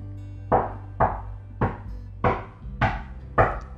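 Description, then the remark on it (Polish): A child knocks on a door six times, the hollow raps spaced unevenly, with a low steady hum underneath and no talking. “Dziecko puka.”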